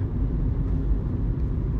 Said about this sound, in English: So we'll just kind of cruise, coast down nice and slow, let the car regenerate its energy, and bada bing, bada boom, we'll be back on the freeway in no time.